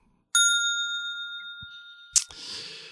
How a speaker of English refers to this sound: Point of order, though Mary needs a ding because I think she meant the men from Lallybroch were like lemmings and not lemurs. And uh, Vicky, you know what? Even though Mary's not here, she still gets her bell.